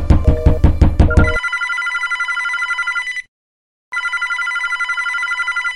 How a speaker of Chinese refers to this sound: 房里的电话响了，是谁打的？我该接吗？难道是其他房客看到刚刚的事情，打电话跟旅馆反映？啊，有可能是旅馆的工作人员打来的，我还是接吧。